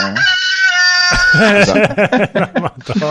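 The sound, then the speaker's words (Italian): A new rooster-crow alarm goes off loudly: one long, drawn-out harmonic crow, then a quick run of choppy, rising-and-falling squawking calls, with no talking over it. “Scusate la mia nuova sveglia.”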